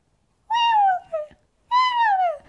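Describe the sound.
A person imitates a robin's throaty call: two drawn-out, whiny tones that slide downward, with a brief catch between them. The voice is fairly loud, with no talking.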